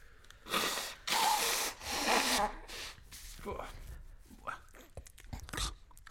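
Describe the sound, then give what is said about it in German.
Someone blows their nose into a tissue, three loud, breathy honks in quick succession, followed by softer rustling and faint murmured voice sounds. “Du musst kurz meine Nase schneuzen.”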